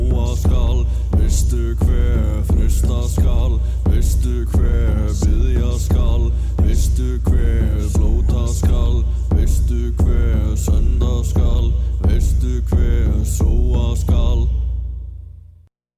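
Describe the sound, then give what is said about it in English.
A Nordic folk music track played on CFRU 93.3 FM radio, with a heavy, constant low drone under steady, evenly spaced drum hits and layered mid-range tones, playing loudly before fading out at the very end. “Some real old school uh, Nordic folk music.”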